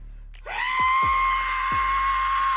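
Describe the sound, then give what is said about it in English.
A man imitates the piercing screech of an F-35 jet, a sustained whistling tone that swoops upward then holds steady and loud for about two seconds, with no talking. “Between a screech and a whistle.”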